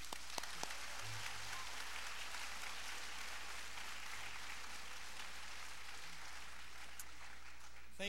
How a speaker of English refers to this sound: Isn't there a lot of talent in this room today? A lot of talent on the stage and a lot of talent out there. You can applaud, that's fine.